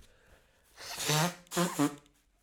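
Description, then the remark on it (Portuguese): Someone with a long-lasting cold blows their nose in two loud, honking bursts: a longer first blast, then a brief pause and a second blow that pulses twice before trailing off. No one speaks. “Olha, só por isso vou-me assoar outra vez.”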